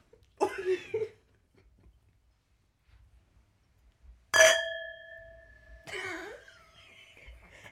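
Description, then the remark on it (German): A single gong-like chime, like a school bell, strikes once and rings for about a second and a half with steady bright overtones. Short throaty vocal sounds come before and after it. “Das sieht an wie der Glockengong in der Schule.”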